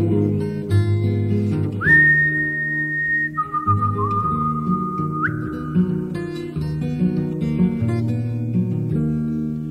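A clear, sustained human whistle holds long notes and slides between pitches over steady acoustic guitar strumming, up close and fairly loud. No one speaks.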